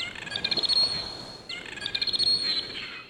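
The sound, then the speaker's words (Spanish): A dolphin's high, wavering signature whistle, the call that identifies an individual dolphin to others, with quick chirping trills, repeated twice in close succession, clear and fairly loud with no voices present. “Son varios los grupos de científicos que desde hace algunos años descubrieron que los delfines se llaman unos a otros con un sonido que es específicamente un silbido.”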